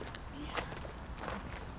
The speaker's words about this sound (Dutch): We lopen nu de begraafplaats op, grindpad, met verschillende graven.